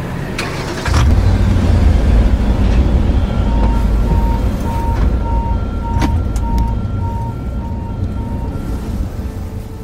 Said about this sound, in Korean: 자동 세차장에서 자동차 세차하는 소리 들려드렸습니다.